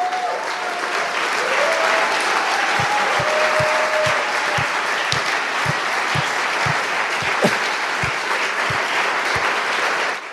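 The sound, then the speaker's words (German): An audience at a sermon applauds for God's Word, loudly and steadily for about ten seconds, with a few cheers rising above the dense clapping and a regular low thumping beat joining in partway through. “Warum klatschen wir nicht mal für Gottes Wort?”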